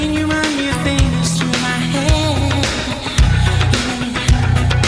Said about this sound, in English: And it, that's that horrible song they wanted me to play.